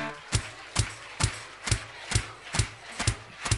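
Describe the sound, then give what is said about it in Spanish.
A crowd stands and shouts the name "Jesús" in unison, again and again in a steady rhythm, about eight sharp bursts in under four seconds, each punctuated like a clap, to start the preaching. “Si quiere que la predicación comience, póngase de pie a gritar el nombre, sobre todo nombre.”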